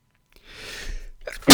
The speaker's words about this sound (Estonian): ma vist aevastan kohe, oota.